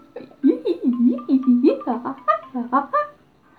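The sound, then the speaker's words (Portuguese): A voice imitates a screeching monkey with a rapid run of about ten short, swooping, chattering calls, close and fairly loud, rising in pitch toward the end. “Como é a sua voz? O macaco guinchou.”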